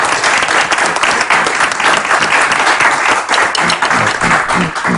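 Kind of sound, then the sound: crowd, audience applause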